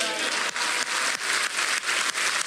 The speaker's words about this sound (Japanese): しばらくハレルヤの叫びとそして、えー、拍手を持って神様を心から褒めたたえキング・オブ・キングス王中の王王私たちの世界の歴史を支配しておられる主イエス・キリストに向かって拍手とハレルヤを叫びたいとそう思います